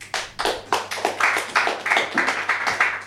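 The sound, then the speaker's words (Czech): Applause for an evening guest, steady, rhythmic clapping, about three claps per second, fairly loud and sharp, lasting the whole moment with no voices over it. “Poprosím potlesk.”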